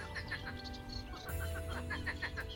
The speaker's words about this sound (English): These are the marsh frogs out looking for love at the bottom of Cadborough Cliffs a few weeks ago.